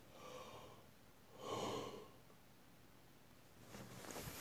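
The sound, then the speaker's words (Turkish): A single drawn-out, breathy yawn swells in the middle, with softer airy breaths before and after. Quiet, with no talking. “Evet esnedim.”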